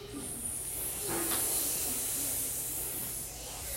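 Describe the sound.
A person makes a long, steady hissing sound, imitating a snake. The breathy hiss runs continuously for several seconds at an even level, with no talking.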